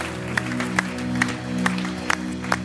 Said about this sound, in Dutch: But why don't we give him one more hand Laten right now? we nog een applaus geven.